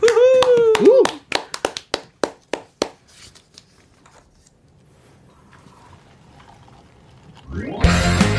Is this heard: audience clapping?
yes